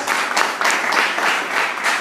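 A crowd applauds steadily, a dense wash of many hands clapping at once with no pauses, loud and sustained throughout with no voices rising above it.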